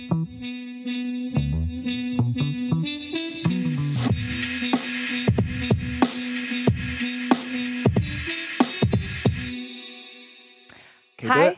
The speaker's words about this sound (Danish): Ja, Lad os prøve. Skal vi tage Den nye jingle? Nu? Yes.